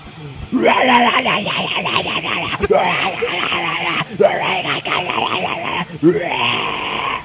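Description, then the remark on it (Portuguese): A man lets out loud, harsh growling shouts in four long, strained bursts with brief gaps between them, close and forceful, like exaggerated bellowing rather than ordinary speech. “Tu pisando um gato aí? Esse aí tu mandou vociferar, vociferei, cara.”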